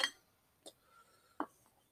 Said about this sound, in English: let me drink some water right quick.